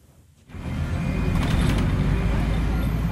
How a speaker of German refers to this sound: Es sieht richtig beeindruckend aus, wenn man im Bus über die Landstraße von Juchitán nach Union Hidalgo fährt.